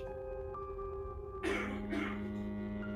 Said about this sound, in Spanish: Tisis, ¿no le escuchas toser? No hace falta tener ningún poder para saberlo, hermana.